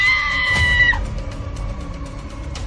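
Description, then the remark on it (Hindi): A woman lets out a single shrill, sustained scream of fright at the red eyes of a mask, lasting about a second before it cuts off abruptly, leaving a low, dark rumbling ambience underneath. “मुखौटे की लाल लाल आंखें देखकर आनंदी चीख पड़ी”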